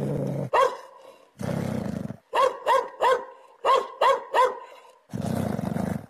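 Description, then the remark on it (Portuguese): A dog charges forward barking sharply in quick bursts of two and three, loud, with low rumbling growls filling the gaps between the barking runs. “E agora há pouco, novamente, meu cachorro avançou latindo como se tivesse quisesse pegar algo.”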